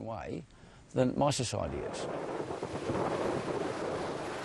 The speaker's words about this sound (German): Zurück auf Restoration Island. Auf der Trauminsel gibt es auch miese Tage. Mit Regen, Tropensturm und meterhohen Wellen.